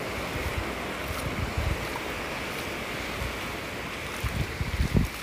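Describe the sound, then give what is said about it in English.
Steady ocean surf rushes continuously onto a shore at dawn, with waves surging and crashing a few times in low, rumbling swells. Wind noise mixes in, and no one speaks. “so i guess the brain waves and the nature waves together have a conglomerate intelligence”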